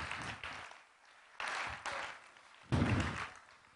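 A crowd applauds with dense, crackling clapping that rises and falls in waves, swelling loudest near the end along with a few indistinct voices.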